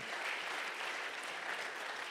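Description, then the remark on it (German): An audience applauds for the Lord, many hands clapping in a dense, steady wash of sound that holds at an even, fairly strong level throughout, with no voices coming through. “Give the Lord a mighty hand. Klatscht mal für den Herrn.”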